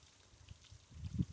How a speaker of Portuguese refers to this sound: manifestando essas palavras de afeto perto de uma passagem de água. E a água está aqui passando.